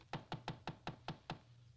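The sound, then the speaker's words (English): Six quick, evenly spaced knocks on a door, crisp and fairly loud in a steady rhythm, with no voices. “Well, go on, open the door. Who is it?”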